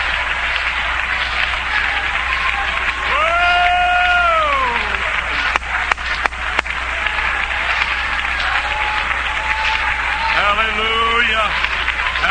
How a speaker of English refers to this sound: Let's all stand to our feet, please. Let's all stand and clap our hands and praise God's name.